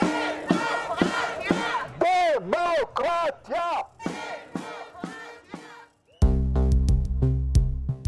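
A crowd of protesters in Israel, demonstrating against planned amendments, chants loud rhythmic slogans in short repeated bursts for about six seconds, then a steady, buzzing musical drone takes over after a brief pause.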